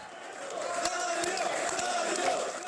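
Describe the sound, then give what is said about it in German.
A dense, steady roar of hundreds of supporters cheering and shouting together in the terminal of Zagreb airport on an arrival in 2014, with a few sharp thumps and louder whoops cutting through the sustained din. “Bei seiner Ankunft am Flughafen in Zagreb im Jahr 2014 wurde er von mehreren Kamerateams und hunderten jubelnden Anhängern im Terminal empfangen wie ein Held.”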